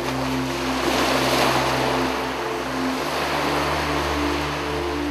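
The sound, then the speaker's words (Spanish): Continuous roar of ocean waves crashing against a pier, loud, with a steady low mechanical hum running underneath, as wind blows from all sides under a cloudy sky; no voices. “El cielo se llenaba de nubes, el viento soplaba de todos lados y las olas golpeaban en el muelle con la fuerza de un relámpago.”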